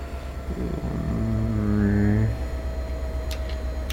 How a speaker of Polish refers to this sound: Tych stacji jest tu dość gęsto i to jest pospieszny pociąg, więc on nie staje tylko i wyłącznie na